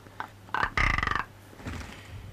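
A rock ptarmigan gives a few short croaks, then a loud, rattling burst of rapid pulses, followed by quieter, scattered low calls.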